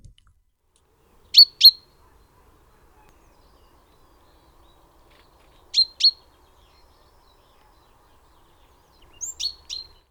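A great tit calls in short, bright paired notes, heard three times with long pauses between, the last burst a quick cluster of chirps against an otherwise quiet background.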